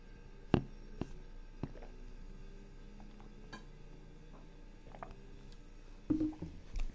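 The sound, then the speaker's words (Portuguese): Someone drinks water, with soft swallowing sounds and scattered small clicks and knocks of a cup or bottle being handled, quiet and intermittent, with no talking. “Vou tomar uma água aqui, eu já continuo o podcast agora que eu não tenho nada para falar.”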